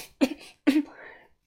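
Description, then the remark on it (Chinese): Two sharp, harsh coughs in quick succession from a person choking on the smoke of a large boiling pot, each a loud burst about half a second apart, the second trailing off into a rough, breathy tail before silence. “他被呛得连连咳嗽。”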